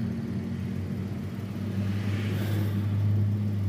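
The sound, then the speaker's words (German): Three huge fire engines rumble out of the fire station on an emergency call, a deep steady engine drone with low humming tones that swells slightly louder partway through. No sirens or voices. “Und natürlich ist genau jetzt, wenn ich mit meinen warmen Burgern und meinem kalten Bier im Auto hier stehe ein Feuerwehrnoteinsatz an unserer Feuerwehrwache und ich parke während eins, zwei, drei riesige Feuerwehrfahrzeuge ihren Stall verlassen.”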